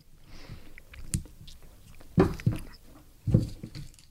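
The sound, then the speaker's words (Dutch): Someone chews a very dry, hard cow's milk cheese with crisp, crunchy bites, three louder crunches standing out over softer, wet mastication, with no talking. “Wel eh, een hele droge koemelk, ja.”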